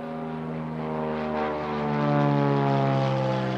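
A propeller airplane drones steadily overhead, its engine hum rich and throbbing, swelling slightly louder midway as it passes, with no voices present.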